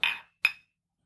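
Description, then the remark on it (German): Two bright clinks of whisky glasses tapped together in a toast in quick succession, each ringing briefly before fading into silence, clear with no talking. “Ich würde sagen, ich, ich hole nochmal Whisky und dann stoßen wir nochmal an.”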